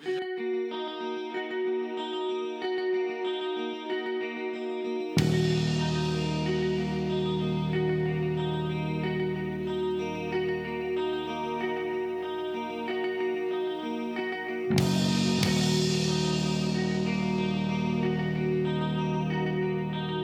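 A slow, dreamy song drenched in heavy reverb, sustained notes smearing into one another, with fuller swells entering around five seconds and again near fifteen. No one speaks.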